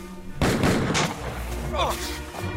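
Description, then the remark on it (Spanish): Four mounted police officers fire their pistols, without bullets, on their officer's order: a loud, sharp, booming burst of near-simultaneous gunfire, then a second crack shortly after, trailing into a low rumbling decay. “Los cuatro policías de la montada se prepararon y a una orden de su oficial dispararon sus pistolas.”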